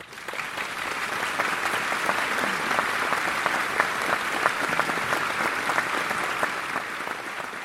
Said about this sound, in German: Wie der Polizeikommissär aufzeichnete, wurde der Vortrag der Rednerin mit großem Beifall aufgenommen.